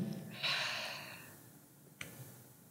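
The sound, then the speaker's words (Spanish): A single airy breath drawn in through the nose during a breathing exercise, rising quickly and then trailing off, followed by quiet and a brief soft click. “Y esto, si yo voy respirando,”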